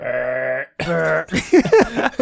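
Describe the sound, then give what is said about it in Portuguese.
Two drawn-out, throaty burps from a father in the background, in close succession, the first steady and resonant, the second rougher, followed by a burst of voices and laughter. “O meu pai acabou de arrotar lá atrás.”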